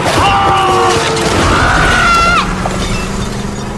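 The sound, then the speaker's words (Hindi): A loud, dense crash as a car runs over a pedestrian crossing the road while talking on the phone, who did not hear the horn: harsh screeching tones ring out over a roaring burst of impact noise, with a rattling, shattering tail. No one speaks. “phone पे बात करते हुए रास्ता पार कर रहा था और उसे गाड़ी का हॉर्न सुनाई ही नहीं दिया और एक कार उसके ऊपर से निकल गई”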